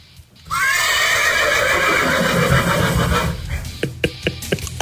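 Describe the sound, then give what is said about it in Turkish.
A horse gives a loud, long whinny lasting about three seconds, its voice wavering and trailing off, followed by a few sharp clip-clop hoof sounds. “Atlar anlıyor artık esprileri.”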